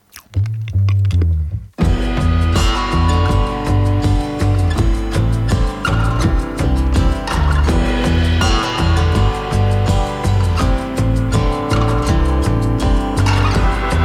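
A loud, full-band pop track opens with a brief sparse intro, then kicks into a driving, steady groove with heavy bass and bright layered instruments that carries on without a break.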